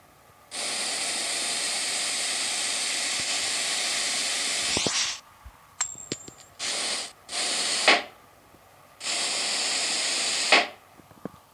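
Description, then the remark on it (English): A balloon being pumped up in a game, with bursts of loud, steady air hiss: one long blast, then three shorter ones, with small clicks in the quiet gaps. No one speaks. “I'm going to start inflating balloons.”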